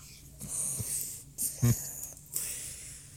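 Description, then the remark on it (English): A person imitates heavy, rasping mechanical breathing, like a respirator mask, pretending to breathe in outer space: a few loud, hissing inhales and exhales with a brief throaty snort in the middle. “Are you Darth Vader? No, I'm just breathing in space.”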